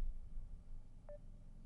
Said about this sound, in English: Now I'm just getting the beeping.